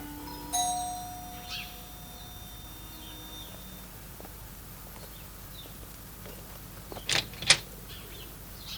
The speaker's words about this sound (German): Der dritte Detektiv atmete noch einmal tief durch, dann überquerte er die Straße, stieg die kleine Treppe zur Haustür hinauf und betätigte die Klingel.